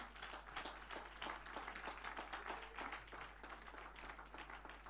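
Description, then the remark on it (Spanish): An audience applauds in praise to the Lord, dense overlapping claps forming a continuous crackling wash at an even loudness, with a low steady hum beneath and no clear talking. “Den un aplauso alabanza al Señor.”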